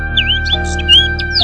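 A bird living in a hat chirps repeatedly in quick, high-pitched tweets and short sweeping calls, clearly audible over a steady low hum and a faint sustained tone.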